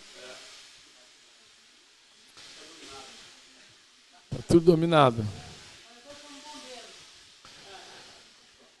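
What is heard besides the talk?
pressure cooker hissing steam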